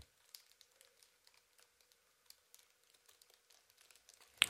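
Small plastic toy handled: soft, scattered clicks, taps and faint crinkles at an irregular pace, quiet throughout, with a sharper, louder click at the very end.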